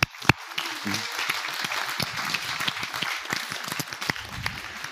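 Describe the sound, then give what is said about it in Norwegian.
An audience at a church applauds two people invited onto the stage, steadily for several seconds, a dense, bright wash of many hands clapping at even loudness, with a sharp single crack near the start. “skal vi gi eh, dem en applaus?”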